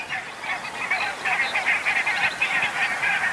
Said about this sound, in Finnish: Niin siinä kuuluu tuota haukahtelua, mikä on valkoposkihanhen ääni.